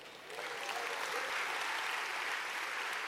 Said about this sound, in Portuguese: Quantos podem aplaudir o Senhor?